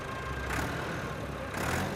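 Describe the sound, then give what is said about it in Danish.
A heavy Ford 5000 tractor engine is started with its key in the dark and runs, rumbling steadily at idle with two brief surges in revs, loud and continuous with no voices. “Nøglen sidder i, så han sætter sig op på den og starter motoren.”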